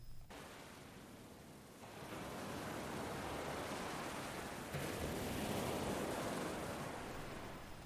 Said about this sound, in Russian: «Послушайте шум волн. Это так красиво!» — сказала самая старшая сестра и заснула первой.